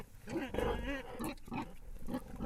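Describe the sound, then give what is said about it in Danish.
Several pigs grunt and squeal, a busy overlapping stream of snorts and guttural calls with no pause across the whole stretch. “lysten til at optimere grisenes velfærd de her grise, som er intelligente og fantastiske dyr, og jo mere frie rammer du giver dem, jo mere oplever du, hvor intelligente de er.”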